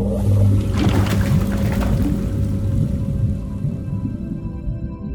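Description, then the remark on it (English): A submarine engine rumbles to life with a deep, steady mechanical drone and low hum, a brief watery whoosh rising near the start before it settles into a continuous throb. “Reach out and turn on the engine.”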